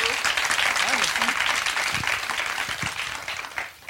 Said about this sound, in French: On gardera cette intro pour tous les, tous les prochains épisodes, parce que les gens croiront qu'on a une foule en délire.